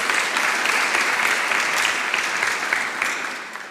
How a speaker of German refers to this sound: Vielleicht einen kurzen Applaus.